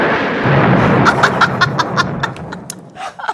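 A loud, rumbling burst of sound like a drawn-out fart, rough and booming, with a rapid series of crackling pops partway through, with no talking; a woman's fart in the bathroom of a small one-room studio apartment.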